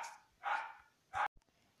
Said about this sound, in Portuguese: Vocês me perdoem os cachorros latindo loucamente, porque elas gostam de, de participar dos podcasts, mas enfim.